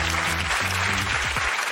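Steady applause from a studio audience, a dense wash of clapping at constant loudness, with some brief tonal music notes underneath and no voices.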